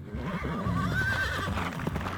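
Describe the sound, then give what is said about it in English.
Horses whinny loudly, their wavering neighs rising over a steady rumble of hooves pounding the ground throughout as they gallop carrying their riders. “The horses surged into the wilderness, carrying their riders with them in a mad dash for stable ground.”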